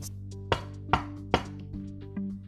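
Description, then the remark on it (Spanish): Three sharp knocks on a wooden wardrobe door, evenly spaced in a quick, even rhythm, followed by faint softer taps, all over a low, steady hum with no voices. “Quiso ser cortés con el monstruo, así que llamó a la puerta.”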